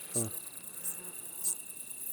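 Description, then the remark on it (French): A steady outdoor evening chorus of crickets and grasshoppers at the Col de Carabès on 29 August 2019, recorded with a binaural system: continuous high-pitched trilling with brief louder chirps recurring every half second or so, fairly quiet, with no voices. “Chorus d'orthoptères”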